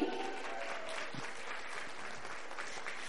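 Steady audience applause fills the whole stretch, a dense, even patter of many hands clapping at a constant, fairly loud level with no voices standing out.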